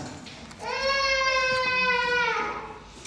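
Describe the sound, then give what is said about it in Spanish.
A single drawn-out wail like a baby crying, fairly loud, lasting nearly two seconds with a steady, strained pitch before trailing off. “Dale un gato, dale un gatito para que no llore.”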